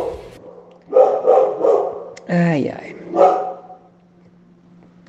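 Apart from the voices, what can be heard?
small dog barking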